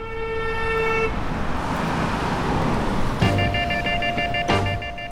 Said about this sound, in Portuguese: trânsito movimentado da rua Maestro Botelho, Niterói, ainda lhe roubou alguns preciosos minutos enquanto tentava atravessar para o outro lado da calçada